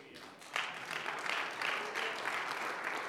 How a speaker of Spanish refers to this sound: Alguien le puede dar un aplauso a Jesús.